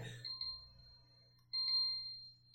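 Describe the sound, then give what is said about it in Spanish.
A phone's electronic chime rings out in bright, sustained tones that slowly fade, repeating about three times over a low, steady background hum. “Te enseño a usar tu teléfono, güey.”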